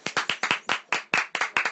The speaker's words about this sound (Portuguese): Aplausos.